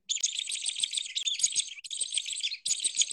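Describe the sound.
A shrill, agitated bird distress call blown on a hunting lure, imitating an excited bird, rapid high-pitched squeals in three bursts with brief breaks, loud, with no talking.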